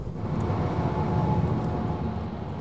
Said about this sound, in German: Wir können jetzt mal überholen, dann sehen wir, dass der Wagen durchaus auch noch beschleunigen kann und mithalten kann mit den anderen Verbrennungsmotoren hier auf der Autobahn.